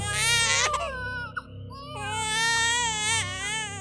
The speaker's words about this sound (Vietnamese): Tiếng khóc của cô bé vừa chào đời vang vọng nơi núi rừng hoang vu